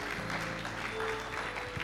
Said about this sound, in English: Go on, give God a clap offering. Go on.